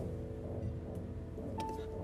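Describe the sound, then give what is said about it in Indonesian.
A water pump motor runs steadily, giving off a constant low droning hum with a faint mechanical whine, unchanging in loudness throughout and with no one speaking. “aduh berisik ini mesin air ya.”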